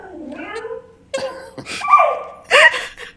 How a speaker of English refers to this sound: Are those the dogs? That's the dogs. Look at that.